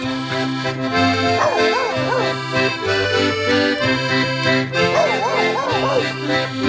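A dog yips and whines in two wavering bursts over a steady, droning musical background, moderately loud.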